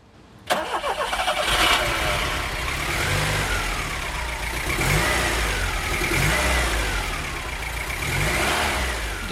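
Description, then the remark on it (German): A Peugeot 504 car engine cranks and catches abruptly, then revs up and down in a few rising and falling surges as the car pulls away, loud, with no talking. “da fährt sie dahin, die Monika, zurück nach Rosenheim”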